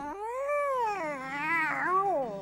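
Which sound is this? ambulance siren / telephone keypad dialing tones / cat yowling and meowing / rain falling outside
cat yowling and meowing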